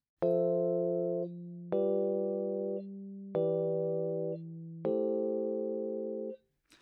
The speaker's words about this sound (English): isn't particularly harmonically complex, and it's sort of built up out of those four chords that we hear. Unfortunately, these aren't the four chords that make up every pop banger for the last 30 years.